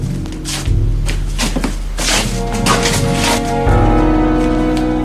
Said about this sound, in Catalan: Una nit, cap a la una, hi va haver uns trucs aixordadors a la porta.